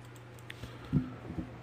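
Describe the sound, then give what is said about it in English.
A handful of soft, irregular clicks of a mouse and keyboard being used for graphic design, quiet, with a low steady hum underneath and no talking. “If y'all hear a lot of clicking, don't mind me. I'm over here doing the graphic design.”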